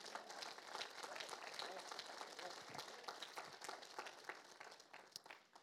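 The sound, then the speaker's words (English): An audience breaks into steady applause as a hand clap of praise to God, many hands clapping together in a dense, continuous patter that holds at an even level for several seconds before thinning slightly at the end. “Give God a hand clap of praise if you have.”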